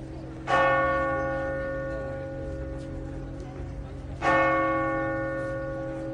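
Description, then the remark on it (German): A large church bell in Lourdes tolls twice, slow and resonant, each strike ringing out with a long humming decay that overlaps the next. The sound is clear, with no talking. “Und mit dem Glockengeläut aus Lourdes sind wir auf den Besuch von der Melsergrotte eingestimmt worden.”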